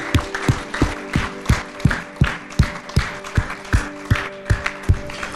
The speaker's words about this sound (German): Lasst uns der Person einen fetten Applaus geben.